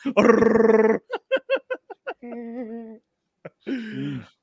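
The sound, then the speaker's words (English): A person mimics a Star Wars Wookiee with a crossbow, a raspy, throaty roar, then a quick run of clipped vocal bursts and a wavering tone, ending in another rough, rising growl. Loud. “Just sound of the gun and the sound he makes.”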